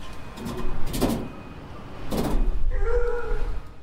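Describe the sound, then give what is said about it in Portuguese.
Someone raps on the metal plate that covers an entire gate, with a few sharp, resonant knocks in two clusters and short pauses between them. A brief tonal sound follows near the end. “Começo a dar batidinhas na placa de metal que cobre todo o portão.”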